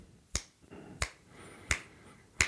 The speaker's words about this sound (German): Je langsamer das Stück ist, umso kürzer kann man einzählen. Und wenn das Stück richtig schnell ist, kann man lang einzählen. Lang einzählen bedeutet, man schnippt,